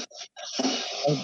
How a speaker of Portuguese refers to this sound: trabalha com, acho que com questões aí de de marcenaria, de, de obras, e daí fica esse barulho